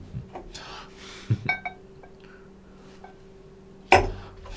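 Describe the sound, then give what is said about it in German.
A few clinks and knocks as a glass is handled during a gin tasting, with a brief bright ring after the first taps and a louder clunk near the end, against a quiet hum. “Falsches Glas.”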